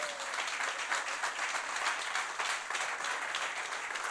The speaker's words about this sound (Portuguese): Dê um aplauso gostoso ao Senhor.